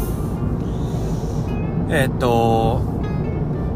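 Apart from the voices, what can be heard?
car interior noise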